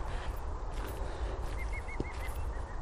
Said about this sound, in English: Oh, a green woodpecker.